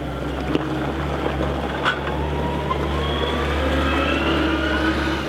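Heavy machinery engines drone steadily, a deep low rumble under a busy mechanical clatter, with a motor whine slowly rising in pitch, no voices, as pallet trucks and excavators unload a cargo ship in a village centre, working day and night.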